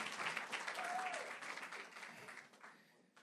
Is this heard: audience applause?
yes